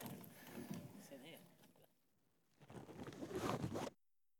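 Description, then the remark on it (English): Muffled rustling and scraping from a switched-on handheld microphone jostled inside a zipped bag, in two bursts separated by a brief lull, the second louder before it cuts off abruptly. “It's on in your bag.”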